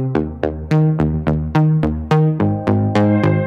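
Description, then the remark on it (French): A dry synthesizer plays a brisk sequence of about eleven plucky, bright notes in a steady rhythm, each with a sharp attack and quick decay, loud with no voices. “Donc c'est un son de synthé, comme vous avez pu le remarquer”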